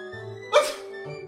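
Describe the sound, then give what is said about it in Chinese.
A single short, sharp sneeze bursts out over a faint steady background hum, with no talking around it. “今天的喷嚏怎么那么多的嗦？难道是感冒了的嗦？”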